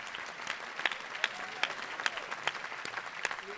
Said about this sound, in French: C'est aussi le plaisir de voir des salles remplies, des gens qui applaudissent, qui rient ensemble.